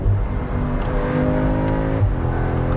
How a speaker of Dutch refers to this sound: Maar als jullie goed luisteren, ik zal eens even terugschakelen en een beetje accelereren.